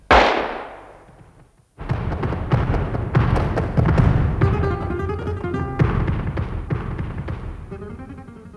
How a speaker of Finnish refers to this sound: Näin miehen hahmon pimeässä melkein edessäni niin heittäytyi vaistomaisesti syrjään ja silloin pamahti. Oho. Pistoolin suuliekit melkein korvensivat kasvojani